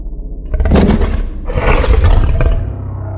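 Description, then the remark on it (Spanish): A deep, monstrous growling roar rises in two long rasping surges, loud, with a low rumble sustained throughout and no talking. “Caminó hasta dentro del cuarto en completa oscuridad y dice que escuchó un horrible gruñido a sus espaldas.”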